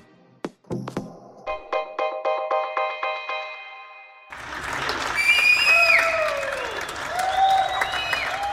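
Applause and cheering from balconies in Hamburg, Germany, in mid-March during the Corona crisis, thanking those who helped, with loud whistles rising and falling over the clapping, preceded by a steady run of rhythmic, ringing metallic beats.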